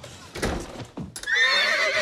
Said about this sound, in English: Yo, there's a horse in your house.